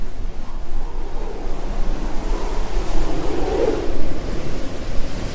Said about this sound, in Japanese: 降りしきる雨はまるで滝のように降り注ぎ自分の1メートル先も見えないほど辺りを包んでいました